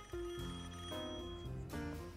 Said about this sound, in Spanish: Sí, está sonando un teléfono, está sonando.